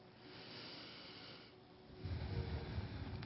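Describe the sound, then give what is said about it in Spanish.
Slow, heavy deep breathing in a class, with a rough, airy rasp, steady at first and growing louder and deeper in the last second or so, with no talking. “Mientras regresamos a la clase, yo voy bajando la música mientras todos van respirando profundamente abriendo sus hermosísimos ojos llenos de tanta luz, porque hasta ellos recibieron luz.”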